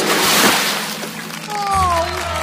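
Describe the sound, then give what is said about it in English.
A loud water splash as a merman leaps into the air from the water, quickly fading into sloshing, followed by thin, gliding whistle-like tones over a low hum. “He then leaped in the air from the water, turning into tiny versions of himself trapped in the bubbles.”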